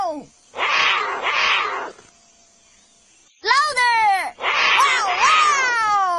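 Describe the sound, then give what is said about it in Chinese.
Voices imitate a roar, roaring along with a baby jaguar and shouting "wa wa" to scare away a coati: loud, strained shouts in two bursts, a pause, then a longer run of several rising and falling roaring cries. A brief spoken word comes between the groups. “谢谢你的吼声，把长臂浣熊吓跑了。”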